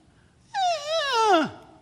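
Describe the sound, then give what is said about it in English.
A single cow elk call in a canyon in pitch-black darkness, a nasal, whining mew lasting about a second that holds steady and then slides sharply downward at the end, clear against a quiet background. “and that's the cow elk.”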